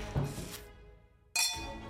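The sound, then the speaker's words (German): Wine glasses clink together in a toast, two bright taps about a second apart, each leaving a clear ringing tone that slowly fades, with no talking over them. “ah, zum Wohl.”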